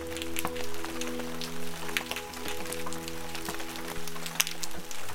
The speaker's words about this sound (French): Bon là j'écoute le son du bentos, ça me fait penser à de la pluie, ça me fait penser à une très grande activité, une impression de grouillement.